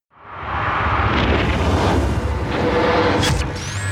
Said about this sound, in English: Strap in, Houston, it's time for liftoff.